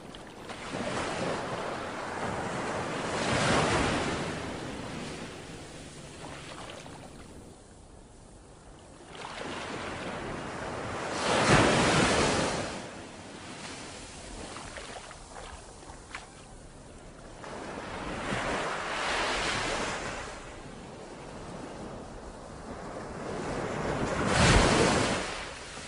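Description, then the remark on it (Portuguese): Ocean waves roll in and break on a beach in a slow, steady rhythm, each surge swelling into a broad whooshing crash and then receding, about five or six waves in all, with no voices. “Feche seus olhos e deixe que o barulho das ondas do mar levem você ao local dessa meditação.”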